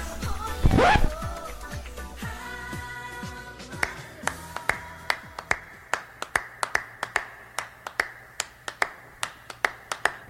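Opening of an upbeat oldies pop song by a 1960s vocal group: a loud mouth pop, then crisp finger snaps keeping a steady, bouncy beat with light backing underneath, no singing yet.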